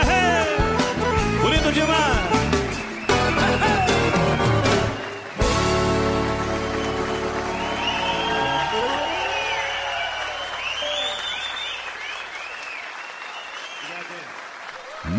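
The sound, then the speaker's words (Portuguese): A burst of audience applause for the accordion players of southern Brazil on the radio program O Assunto é Rodeio, dense and steady, mixed with loud music for the first few seconds before giving way to sustained, sweeping musical tones. “Uma salva de palmas para os gaiteiros do sul do Brasil.”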